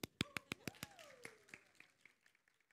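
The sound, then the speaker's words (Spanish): Audience applause with sharp, distinct claps, strongest at first and gradually thinning and fading over a few seconds, with a faint tonal sweep underneath. “Dese un aplauso.”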